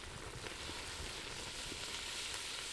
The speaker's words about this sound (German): Jetzt kommen die Zutaten in den Kessel und werden angebraten. Und der Kessel wandert zurück auf die Flammen. Dann kommt Wasser dazu, Fleisch und Gemüse schmoren.